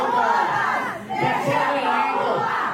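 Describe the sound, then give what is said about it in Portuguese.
Women in a council chamber plenary, backs turned to a councillor during his speech, shout protest slogans against his remarks in unison, their high-pitched voices loud and steady, with one brief dip before the chanting surges back and carries on without pause. “as mulheres que estavam no plenário viraram de costas para o vereador enquanto ele discursava e começaram a gritar palavras de ordem contra as falas do vereador.”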